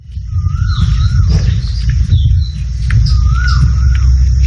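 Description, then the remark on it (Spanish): Ambience of a large natural park in India, with several birds calling: repeated rising and falling whistled notes and higher chirps over a steady low rumble, no voices. “Pues comienza ahora, esta próxima semana, la temporada para visitar los grandes parques naturales de la India. Y así suena uno de ellos.”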